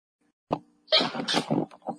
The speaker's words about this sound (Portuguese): Ai, eu vou espirrar.